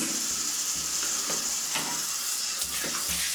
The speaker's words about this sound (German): Aber naja, dieses Geräusch kennt ihr auch. Genau, ich bin beim Duschen.